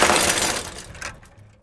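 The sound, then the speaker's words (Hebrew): A loud crash of someone falling off a bicycle on a street after a cat jumps in front of the rider: a sudden burst of clattering, shattering noise that trails off with scattered rattles over a second and a half, with no talking. “תדמיינו שאתם נוסעים באופניים שלכם ברחוב שליד הבית, ולפתע חתול קופץ מולכם ואתם נופלים.”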